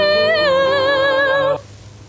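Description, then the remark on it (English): A short burst of an advertising jingle playing on the radio: one bright, sustained musical note with a slight wobble rings out for about a second and a half, then cuts off abruptly into quiet background hiss. “Look at that, your namesake is playing.”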